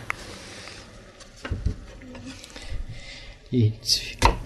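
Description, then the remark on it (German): Dicing onions on a cutting board: a handful of irregular knife thuds and knocks on wood, growing busier toward the end, with a soft clatter in between. “die würfeln. Ihr könnt also die Zwiebeln zum einen mit in die Mehlschwitze reintun.”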